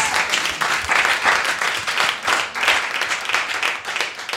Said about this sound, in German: Applaus.